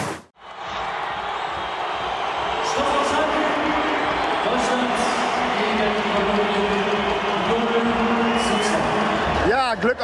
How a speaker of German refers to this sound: Ich habe jetzt gerade mal ein bisschen laufen lassen mit dem Schlusspfiff. Und äh, der Jubel, den man gehört hat, das war rein von den in gelb gekleideten Fans hier. Und das sind einige äh, Kolumbien-Fans